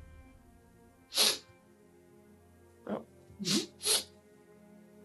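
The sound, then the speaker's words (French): A voice imitates a large cat sniffing the scent of something: four sharp, breathy snorts, one alone and then a quick cluster of three, fairly loud, with a brief murmur between them. “Comme si on reniflait l'odeur de quelque chose. C'était un gros chat.”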